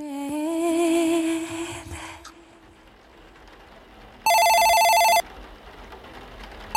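A telephone rings one morning with a call received before going to the studio: a steady, buzzy electronic tone sounding loudly for about a second, after a warbling, fading tone at the start and a quiet pause.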